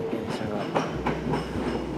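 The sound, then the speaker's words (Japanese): A train rolls into a station on a local railway line with a steady low rumble and periodic clattering of wheels over rail joints, with no voices over it. “電車がで IC カードは使えないし”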